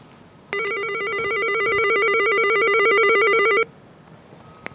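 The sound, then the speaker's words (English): An electric doorbell, rung by a visitor wearing a face mask, rings in one continuous, rapidly trilling burst lasting about three seconds, loud, then cuts off abruptly into quiet with no one speaking. “Okay, let's put on the face mask and ring the bell.”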